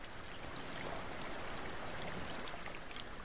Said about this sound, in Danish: Man sagde, at når der kom gæster til Lise Lund, måtte Kalmets tjeneste folk fylde ekstra vand på faldet, så det rigtigt kunne bruse.